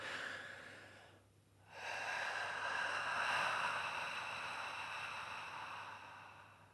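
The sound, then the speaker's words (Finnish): A single deep breath drawn in, a brief pause, then a long, steady, airy exhale that slowly fades, with no talking. “Ja sitten kun se uloshengitys on loppunut, asiat näyttää taas pikkusen erilaisilta.”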